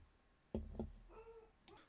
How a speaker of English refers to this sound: Sorry about that, folks. It was a knock at the door from the turnaround guy.